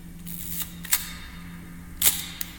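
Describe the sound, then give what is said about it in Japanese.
A film camera, borrowed from a professional photographer, has its film advance lever cranked with a mechanical ratchet to wind the film on frame by frame, followed by a sharp shutter click, repeated twice over a faint low hum, with no one speaking. “フィルムカメラをですねちょっと今知り合いの方プロのカメラマンの方から使わないやつを借りていましてそれをね使ってあのフィルムを自分で買って撮っているんですけれどもその音が何ともね言えないんですよねちょっと聞いてみてくださいあのまずですねフィルムを一枚一枚こうレバーでこうガシャッと、え送る作業が必要なんですね”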